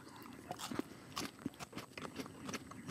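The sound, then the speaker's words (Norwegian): Biting and chewing on a piece of food, with irregular crunchy, wet bites repeating over a few seconds and no talking. “Vi tygger og svelger, er det sånn det?”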